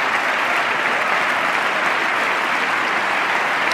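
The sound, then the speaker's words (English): A steady burst of audience applause, dense and fairly loud, many hands clapping in a continuous wash of sound without voices standing out, holding at an even level throughout. “Oh, that's getting some that's getting some applause.”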